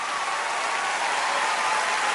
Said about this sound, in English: And then the crowd stand up on their feet in rapturous applause.